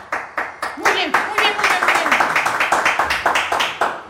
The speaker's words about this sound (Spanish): Un favor, un favor. Si van a aplaudir, aplaudan con huevos, no mamen. Háganle así.